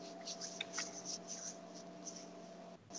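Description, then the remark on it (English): Soft paper rustling as a man gets his paper out, in several brief crinkly bursts, mostly in the first half, over a steady low electrical hum with no one talking. “Uh, oh, he's got his fucking paper out.”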